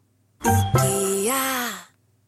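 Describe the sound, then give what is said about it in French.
A single voice hums a short brand advertising jingle, a quick opening note followed by a longer sustained tone that rises in pitch, lasting under two seconds with no other sounds. “Je suis sûre que même en faisant juste le son, tu reconnais.”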